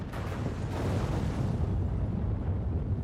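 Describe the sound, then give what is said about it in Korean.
A sustained, heavy rumbling roar with deep low-end booms and crackling debris as a building explodes and its concrete crumbles like cracker crumbs and collapses. No voices. “수명이 100년밖에 되지 않았던 콘크리트가 과자 부스러기처럼 폭발해 무너지며”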